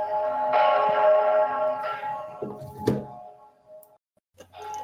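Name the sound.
gong ringing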